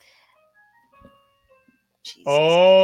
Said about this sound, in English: That was my alarm that I don't know why it always plays.